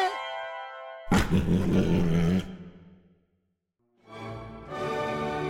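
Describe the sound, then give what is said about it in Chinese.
A tiger, scalded by a pan of hot oil spilled over it, lets out a loud, ragged roar of pain that fades into a growl, then after a short silence roars again in rising, strained bursts as it scrambles back toward the mountains. No one speaks. “烫伤的老虎带着疼痛，连滚带爬地冲回山里。”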